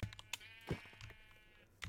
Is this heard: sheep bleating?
yes